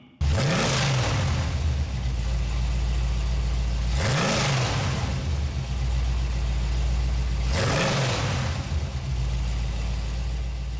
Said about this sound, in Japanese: 今回は V8 エンジンを国別に聴き比べていきましょうまずはアメリカから70年代の V8 サウンドを1970年式ダッジチャレンジャー RT